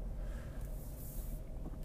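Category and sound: vehicle, car passing outside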